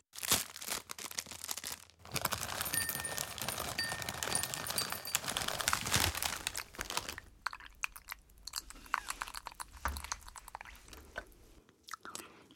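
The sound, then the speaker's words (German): A packet of Bioking Bären Knusperkranzi muesli rustles and crinkles loudly for several seconds, then gives way to sharp crunching and chewing of the crisp muesli, with irregular bites and no talking. “Ich gönne mir darum jetzt ein feines Bioking Bären Knusperkranzi Müsli.”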